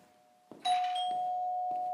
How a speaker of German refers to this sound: Es hat geklingelt. Ja, natürlich hat es geklingelt